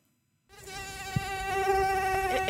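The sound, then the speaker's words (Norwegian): A mosquito's thin, high-pitched whine starts abruptly after a moment of silence and holds steady, growing slightly louder as it hovers. “I don't like mosquitoes, I must say so.”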